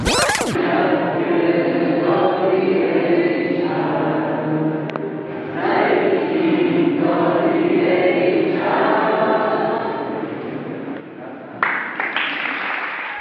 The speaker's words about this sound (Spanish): Así se escuchaban los rezos y aplausos de miles de jóvenes dentro del cementerio de Aichi.